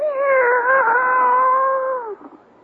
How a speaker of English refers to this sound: She meows happily when I put it in her litter box.